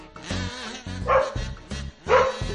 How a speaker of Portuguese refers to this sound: Paulinha, minha cachorra, tá aí a cachorra